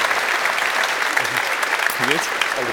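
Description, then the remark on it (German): An audience applauds steadily for Kevin-Prince Boateng for a few seconds, a loud, dense wash of clapping that never lets up, with a voice briefly rising over it toward the end. “Ihr Applaus nochmal für Danke.”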